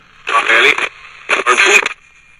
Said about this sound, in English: Unless there's a radio turned on, nobody can hear it. So I will turn mine on, and I will look for a station.